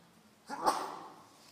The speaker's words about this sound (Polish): Na zdrowie.